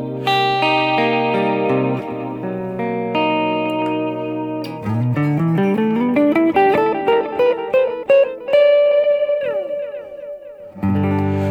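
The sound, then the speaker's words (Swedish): Sustained, processed instrument tones give way to a rising run of notes, each followed by distinct, evenly spaced echo repeats from a stereo delay effect that spread wide and trail off, with no talking. “Och nu gick jag över till eh, i stereo. Och ni hör att det blir det blir bredare, men framförallt hör ni att studsarna hörs tydligare.”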